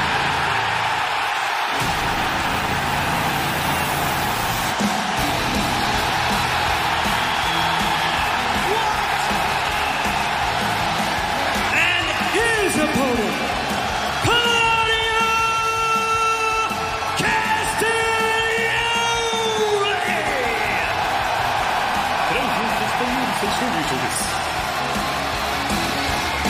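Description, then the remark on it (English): A huge arena crowd of 16,529 people at a wrestling event roars and cheers continuously, with loud sustained yells and whoops swelling in the middle before settling into a steady, dense wall of noise. “that sound you just heard, wow, 16,529 people wow. losing their mind.”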